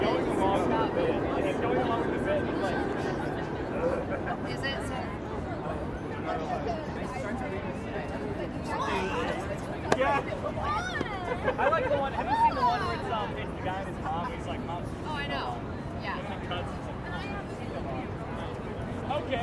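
Steady chatter of tourists in Times Square, a busy open city square, many overlapping voices blending into a continuous hubbub with no single speaker standing out, at an even, moderate loudness throughout.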